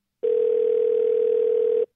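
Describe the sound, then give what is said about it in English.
A steady telephone dial tone hums at a single constant pitch for about a second and a half, clear and unbroken, then cuts off abruptly, as KLRC Radio places a call to Creekside Coffee Shop. No voices are heard. “And so this week's office of the week is Creekside Coffee Shop, and we're going to make a little phone call.”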